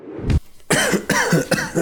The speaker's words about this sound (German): So. Da hustet er wieder. Es lebt.